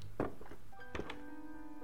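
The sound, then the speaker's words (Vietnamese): A door is kicked open: two heavy, booming thuds about three-quarters of a second apart, the second followed by a lingering resonant ring, loud with no voices. “cửa phanh một tiếng rồi bị đá ra”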